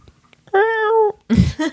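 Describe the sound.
A person imitates a cat's meow with one sustained, clear, fairly loud tonal mew lasting about half a second, followed shortly by a short, breathy, noisy vocal burst.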